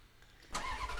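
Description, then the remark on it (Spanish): After a brief quiet moment, a car engine cranks and roars to life, settling into a loud, steady rumble with no voices. “Arrancamos motores.”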